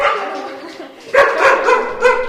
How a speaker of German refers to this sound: Ah ja, man hört da auf jeden Fall Hundegebell. Ähm, ist das ein Hund oder sind es mehrere Hunde? Es ist tatsächlich nur ein Hund.